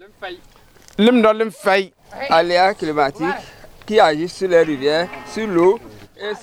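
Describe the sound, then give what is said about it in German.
Cows moo repeatedly and loudly, several drawn-out, overlapping calls following one another with barely a pause over about six seconds. “Insbesondere die Kühe sind von der Trockenheit betroffen.”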